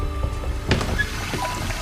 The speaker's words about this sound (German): Doch im Bad läuft das Wasser und die junge Frau geht hinein.